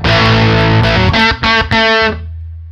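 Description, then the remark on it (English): Overdriven electric guitar played through an overdrive pedal into a tube amp, thick crisp grit with a sustained chord, then three choppy strummed bursts before it cuts off, leaving a low hum. “There's a lot of nice, very crisp grit here.”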